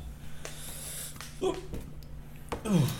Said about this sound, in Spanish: me dio hipo.